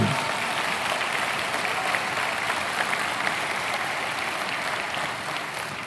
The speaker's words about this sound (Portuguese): Pode aplaudir.